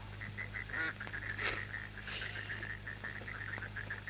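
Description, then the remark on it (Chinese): Swans calling in a steady stream of short, nasal honks, many overlapping and repeating rapidly at a mid-high pitch over a constant low hum, with no one speaking. “天鹅，那不就是天鹅吗？”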